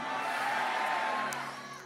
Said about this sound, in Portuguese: Quem acredita que Deus vai nos abençoar hoje de uma forma extraordinária, dá um grito de vitória aí bem forte.